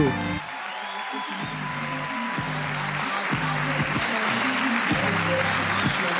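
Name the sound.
audience applause and cheering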